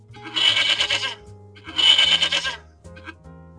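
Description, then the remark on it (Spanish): A horse neighs twice in long, quavering whinnies, each about a second, followed by a brief third call. Loud, with no talking over it. “Tenemos un caballo.”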